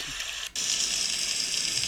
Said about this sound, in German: Jetzt haben wir nochmal andere. Jetzt haben wir Regengewitter.